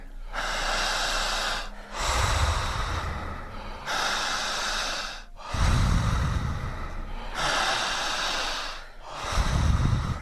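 Deep, heavy breaths during a guided breathing exercise, drawing in air, alternating long noisy inhales and exhales in a steady rhythm, about five or six breaths with brief pauses between them and no talking.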